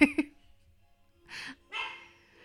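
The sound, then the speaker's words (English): A deaf female dog barks twice in quick succession, sharp, then after a pause lets out two longer, rougher barks that trail off, moderately loud against a quiet background. “I don't know if you can hear my dog barking.”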